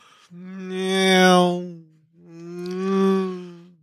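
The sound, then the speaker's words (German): A voice imitates a car horn with two long, drawn-out honking tones that swell and fade, separated by a short pause, loud with no other sounds around them. “Wenn du sagst, ach, es ist die dritte Stunde Podcast-Aufnahme, mir ist das alles zu viel, kannst du auch einfach nur Autogeräusche machen und mit zwischendrin mal hupen.”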